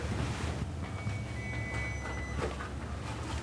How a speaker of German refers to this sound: Dort hinten läutet jemand.